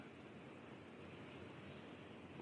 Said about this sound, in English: Wow, you can really hear that rain. Damn.